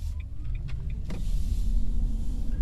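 A car's low, steady engine hum builds as it pulls away, with a few faint clicks and a brief whirr like a power window early on; no voices.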